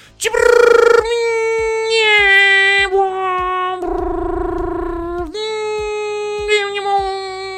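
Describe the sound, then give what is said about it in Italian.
A person vocally imitates a dial-up modem handshake to connect by phone to an internet provider, with loud sustained tones that jump in pitch, warble, and give way to a harsh buzzing stretch before the whine returns. “come sapete, io già ve l'ho detto, a un certo punto ero diventato talmente bravo da riuscire a collegarmi a voce.”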